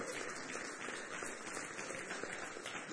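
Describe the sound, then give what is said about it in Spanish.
A church audience claps together for its married couples in a steady, sustained wash of applause that lasts the whole moment, fairly soft, with no one speaking over it. “Así que ustedes mismos merecen un aplauso.”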